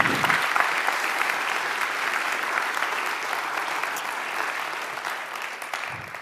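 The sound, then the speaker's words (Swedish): Sustained audience applause, a dense steady wash of clapping hands that holds at an even, fairly loud level for about six seconds with no voices breaking through. “Ge dem en stor applåd.”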